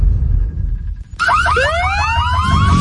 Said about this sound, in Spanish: Sabemos que las bocinas y los ruidos son molestosos.